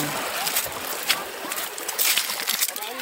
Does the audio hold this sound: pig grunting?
no